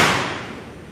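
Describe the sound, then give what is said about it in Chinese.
A balloon is popped by a speaker as an experiment before a talk to an audience: one sudden, loud, sharp bang that rings out and fades over the following second, with no voices. “等一下，我会把这个气球戳破。”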